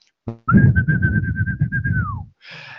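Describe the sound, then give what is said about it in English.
A voice whistles an imitation of a phaser firing while a little pistol is formed with thumb and finger: one steady, slightly warbling tone held for nearly two seconds, then sliding down in pitch, over a low rumbling background, followed by a short hiss. “So they form little pistols with their thumb and finger, and then they whistle the, the sound of a, of a phaser”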